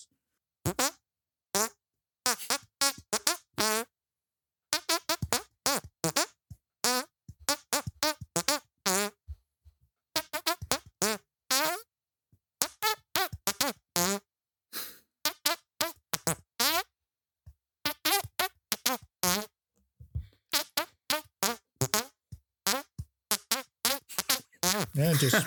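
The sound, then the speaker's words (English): Squelchy hand farts play a song's melody, rapid bursts of varying pitch following the tune in quick phrases with short pauses between, loud with no talking. “and listen to your song being hand farted.”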